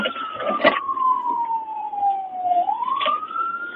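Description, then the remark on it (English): A police car siren wails steadily during a chase, its pitch sliding slowly down and then sweeping back up, loud over a rumbling background of traffic with a couple of brief noisy bursts. “Cop can't keep up. He's in a fucking cop car.”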